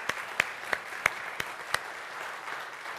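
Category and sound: crowd, audience applauding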